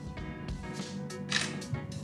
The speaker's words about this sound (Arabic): خلاص ده صوت الفلاش يا جماعه ممكن نخليك نتصور صوره برضه احنا بنصور اثناء التسجيل